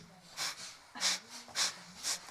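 Quick, forceful breaths pushed through the nose only, as a breathing exercise: four sharp sniffing huffs in a steady rhythm about half a second apart, fairly loud.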